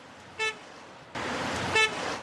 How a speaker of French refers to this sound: Le son du klaxon, un moyen de contestation quand l'attente pour faire le plein d'essence devient interminable.